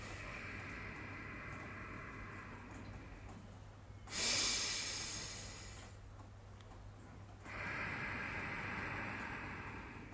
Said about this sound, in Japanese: マイクちゃんと拾ってくれてますかねちょっとあのねあの聞こえやすくするように普段よりも大げさに音を出して鼻呼吸のそしてお腹まで空気をためてでお腹へこまように出すってことを今音で、えー、やってみたんですけども